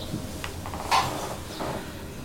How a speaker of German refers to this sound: Jetzt sitzen wir zusammen an einem Tisch in ihrem Wohnzimmer. Viel Licht, große Fenster, wir sitzen auf Holzstühlen, die manchmal knarzen.